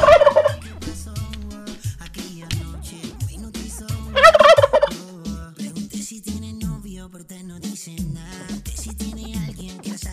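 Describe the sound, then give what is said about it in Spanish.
A turkey gobbles twice, each a loud, rapid, warbling burst about four seconds apart, over steady background music with a bass line. “por ahí escuchan al pavo de Stage Urbano preparándose”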